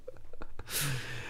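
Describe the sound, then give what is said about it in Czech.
A few quick intakes of breath build up to one loud, explosive sneeze with a hissing spray of noise that trails off, with no talking. “Na zdraví.”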